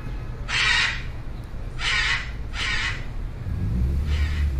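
Four harsh, raspy squawks from blue-and-yellow or red macaws ring out at uneven intervals, loud, over a steady low rumble of background noise with no talking, during a visit to macaw nests in Campo Grande, Brazil.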